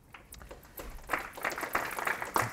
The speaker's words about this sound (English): I like this. We have an audience that claps beforehand, so you know, it's all downhill from here.